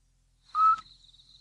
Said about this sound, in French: Parfois aussi, on peut entendre, si on est très, très attentif, que la mère, petit duc, parle à ses bébés dans le nid.